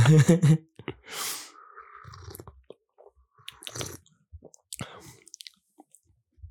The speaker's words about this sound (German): Hier gibt es dann ganz viel Geschlürfe.